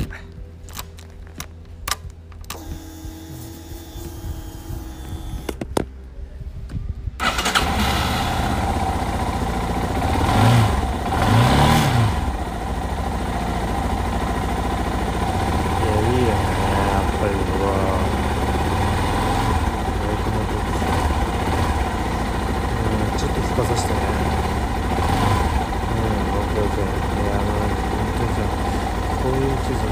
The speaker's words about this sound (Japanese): 聞こえるかねこのバイクの鳴き声